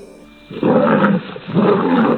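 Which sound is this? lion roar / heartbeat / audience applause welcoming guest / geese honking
lion roar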